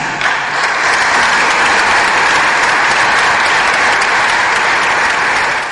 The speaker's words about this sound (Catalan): Va ser una ovació molt tancada perquè ens va sorprendre una mica a tots